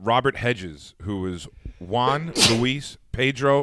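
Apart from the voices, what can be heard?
sneeze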